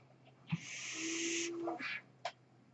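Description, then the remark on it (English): A person's medical ventilator hisses in a long, steady breath of airy noise, followed by a shorter puff and a soft click, moderately loud over a low constant hum. “That noise here is my ventilator.”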